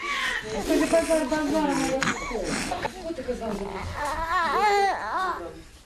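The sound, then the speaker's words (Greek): More than 20 infants cry at once in a shelter in the Ukrainian capital: a continuous, overlapping wail, their high, wavering cries rising and falling for several seconds with no pauses. “Περισσότερα από 20 βρέφη περιμένουν να γνωρίσουν του γονεί του, ενώ βρίσκονται εγκλωβισμένα σε καταφύγια στην Ουκρανική πρωτεύουσα.”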